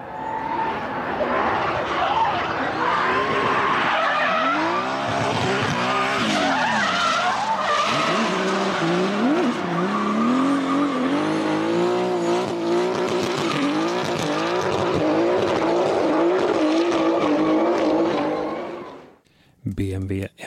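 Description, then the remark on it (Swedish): The engine of a car built in Munich revs hard while tires squeal and skid continuously for nearly twenty seconds, loud, with wavering pitch as the car slides, ending abruptly in a brief burst. “född och uppvuxen i München och vanlig ute på våra svenska vägar.”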